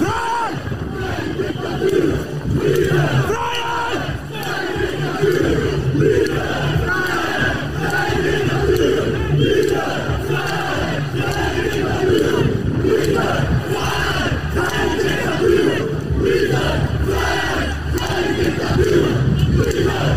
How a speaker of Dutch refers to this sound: En toen vervolgens was er weer even een, een soort eh, ja, een, eh, ja, een, een luid geschreeuw van, eh, van demonstranten. Dat ga ik even, even laten horen.